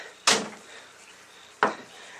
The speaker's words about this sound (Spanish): Eh, cierre la puerta.